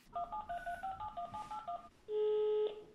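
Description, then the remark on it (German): Someone dials a student's phone number to call him: a rapid series of about ten short keypad dialing beeps, each a paired tone, followed by a steady, louder ringback tone lasting nearly a second. No voices are heard. “Vielleicht könnten wir dort anrufen. Wir organisieren uns die Telefonnummer von dem Schüler. Ich habe die von Jona. Ich rufe gleich mal an.”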